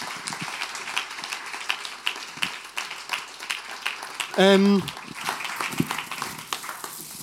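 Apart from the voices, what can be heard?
audience applause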